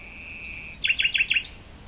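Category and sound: bird, nightingale singing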